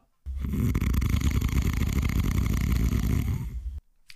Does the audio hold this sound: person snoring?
yes